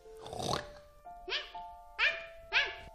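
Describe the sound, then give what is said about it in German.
A rough, throaty grunt opens, then three short, sharp barks follow at roughly even intervals, fairly loud, with a faint steady tone humming underneath. “Ein Drache, der kein Feuer mehr spucken kann, aber in einem Fort grunzen und bellen muss.”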